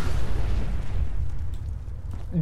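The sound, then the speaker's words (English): A loud, booming video game explosion with a heavy low rumble that fills the moment, then tails off into a rolling decay, with a brief voice sound near the end, as Paladin Danse sprints toward the player. “Danse just came sprinting towards me, and then there was an explosion.”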